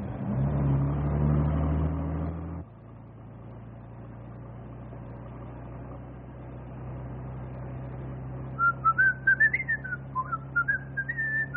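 A man whistles a wandering tune in short, clear notes over the steady low engine rumble of a bus, which follows a burst of loud rumbling at the start.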